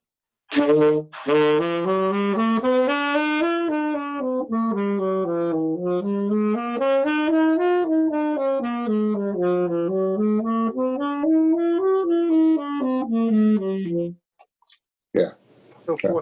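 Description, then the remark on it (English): A single voice steadily sings major scales up and down in one smooth, unbroken line, from the tonic to the ninth and back, modulating to the next key each time, rising and falling several times, then stops, followed by a couple of brief noises. “I do the major scales first. I go from the tonic, which is your first note,”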